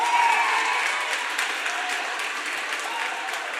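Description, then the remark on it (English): Steady applause from a crowd answering a vote by applause on how many A's are present; a dense, even patter of many hands clapping at once, loud and sustained without pauses. “So, by applause, how many A's are here?”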